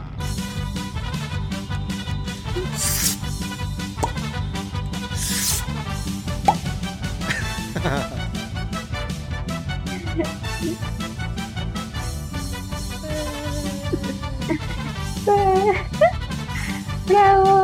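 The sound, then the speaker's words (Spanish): A fanfare plays on Remar Radio for about eighteen seconds, a dense, steady blend of sustained musical tones with two bright crashes early on and short rising flourishes toward the end. No one speaks over it. “Y, pues nada más por ese servicio que has brindado a Remar Radio, te queremos dedicar una fanfarria.”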